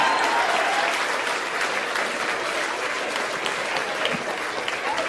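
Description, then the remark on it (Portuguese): An audience in São Paulo bursts into sustained applause for a man's courage, a dense, steady wash of many hands clapping at once that holds at a fairly loud, even level for several seconds without any talking over it. “Uma salva de palmas pra coragem desse cara, galera.”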